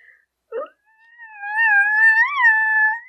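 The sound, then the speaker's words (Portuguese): A voice imitates a nervous chihuahua growling, producing a high, strained, wavering whine held for about two seconds, fairly loud, after a brief clipped sound. “Tá a rosnar aí agora.”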